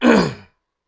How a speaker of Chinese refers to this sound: 瓦格雷夫法官清了清嗓子。